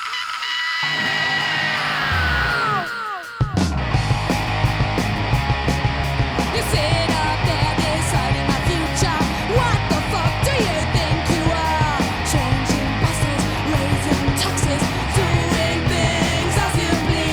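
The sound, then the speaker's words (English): A loud, raw punk rock song: a brief rough intro, then the full band crashes in with thudding bass, steady pounding drums and shouted, yelling vocals over distorted guitar. “a throwback to the uh, straightforward punk sound they had before the album cut, which you can hear right here.”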